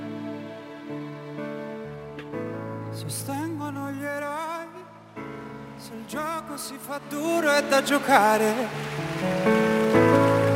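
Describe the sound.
An Italian pop song from the San Remo festival, broadcast in Spain via RTVE's RTV Play platform, plays loudly and clearly, with a sung lead vocal over sustained keyboard chords and a steady backing arrangement that builds in intensity toward the end.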